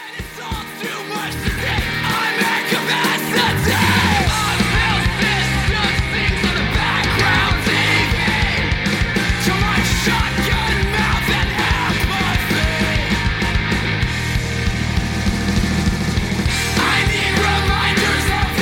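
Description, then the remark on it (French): Loud, dense rock music plays throughout, with heavy distorted instruments and a driving beat under harsh, yelled vocals, building quickly after a brief quieter opening. “avec des morceaux beaucoup un peu plus posés au niveau de la rythmique et bah j'ai tout simplement un petit extrait pour que vous puissiez vous en rendre compte voilà”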